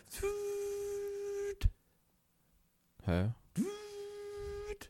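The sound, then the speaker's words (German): A cordless stick vacuum cleaner whirs with a steady high-pitched motor whine, cuts off abruptly, then spins back up and runs again after a brief questioning voice. “Nein, das ist kein Handy. Das ist ein Staubsauger.”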